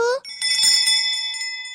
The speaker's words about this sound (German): Wann werden denn diese Glocken geläutet? sind die kleinen Glocken, die werden von den Ministranten geläutet, und zwar ganz besonders bei diesem wichtigsten Moment in der heiligen Messe.